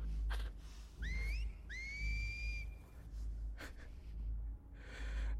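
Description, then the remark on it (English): Someone whistles two quick rising notes, the second longer and sliding up before holding steady, over a low rumbling background with a few breathy bursts and no talking. “You hear more What's whistling.”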